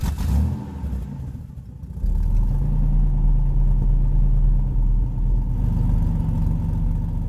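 A car engine turns over and catches at night, then settles into a steady, loud idling rumble with a low droning hum, revving slightly, with no voices.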